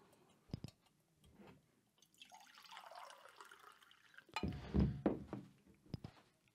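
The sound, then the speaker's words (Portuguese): Someone drinks water: a few soft knocks, a rising pour, then a cluster of gulping, swallowing sounds and a final thunk, with no talking. “Deixa eu tomar uma água aqui, pô, antes que eu fique louco.”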